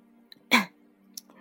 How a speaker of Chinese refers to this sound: 我压着嗓子咳嗽了声